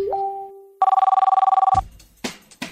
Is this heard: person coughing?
no